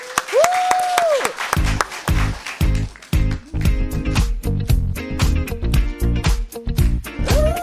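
An audience at a KBS radio public broadcast in the live studio Kong applauds loudly and steadily for a live song performance, over a punchy, rhythmic bass-heavy beat that kicks in after a brief rising electronic tone.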